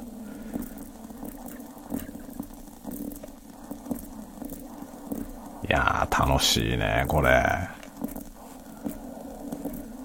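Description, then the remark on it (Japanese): Water boiling and bubbling up in a siphon coffee maker while brewing coffee makes a steady, rumbling, bubbling roar throughout, with a man briefly speaking over it partway through. “おお沸騰してるいや沸騰してる音がすごいすごい臨場感で撮れるね結構そんなに近くないんですけどねマイク今それでも結構いい音で撮れてますねおボコボコ上がってきた”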